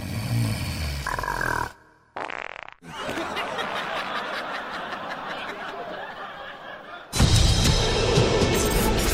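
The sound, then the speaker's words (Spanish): A voice imitates how a woman snored, with rough, raspy snorting breaths, a short burst, a brief pause, then a long grating stretch ending in a louder, harsher snort. “porque ya roncó así y no me dejó dormir porque ella roncó así, así.”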